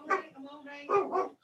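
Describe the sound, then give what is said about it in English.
A dog barks a few times in quick succession, fairly loud, with a higher whining tone between the barks. “That, that was my dog and my wife.”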